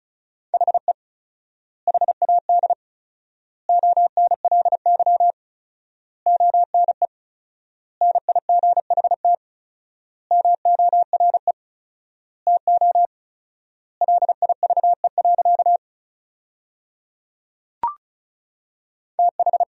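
Fast Morse code beeps at 35 words per minute in a single steady pitch, sent in quick bursts of dots and dashes with four-times word spacing, so longer pauses fall between words, clear and alone with no voices.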